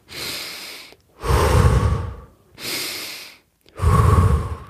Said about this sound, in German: weil es ist so, man, man guckt, dass man ganz viel Sauerstoff in den Körper bekommt, in die, in die Blutbahn, also kurz vor Hyperventilieren eigentlich schon fast. Man atmet mehr, als man normalerweise atmet. Einfach so.